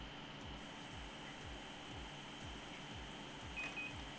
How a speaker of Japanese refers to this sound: 例えば今ですと、はいえー、アレクサエアコンをつけてっ